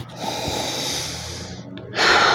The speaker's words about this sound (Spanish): Yo huelo, oye, estoy con mi café, yo huelo el café.